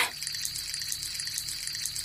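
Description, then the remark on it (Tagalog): A steady stream of water pours from a strong tap by a gate where clothes are being washed, a continuous hissing splash with a faint ringing tone, moderately loud throughout. “Sa gate siya naglaba dahil doon lang may liwanag at may malakas na gripo.”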